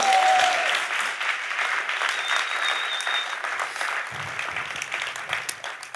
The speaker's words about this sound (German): Das ist dein Applaus